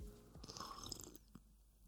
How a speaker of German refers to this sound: Machen wir immer so Schlürfgeräusche, dass man merkt, dass wir auch einen Kaffee trinken.